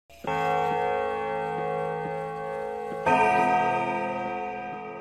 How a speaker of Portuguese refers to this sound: Mas aqui, o sino badala e vamos pro ato 4.